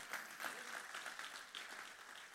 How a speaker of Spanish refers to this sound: Si tú lo quieres dale un aplauso.